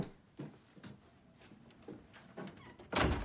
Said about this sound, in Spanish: Cierra la puerta.